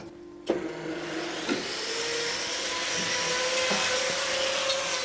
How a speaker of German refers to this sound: Die Flex macht die Klaue erst einmal eben und kürzt sie auf die richtige Länge.